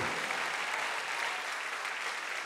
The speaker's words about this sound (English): Congratulations, Nations Church, on one amazing, supernatural, glorious year. Come on, let's just give it up for Jesus this morning.